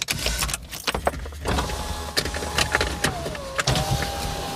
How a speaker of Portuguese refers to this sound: Já deixa abrir os vidros que é para ficar no carro já durante a noite.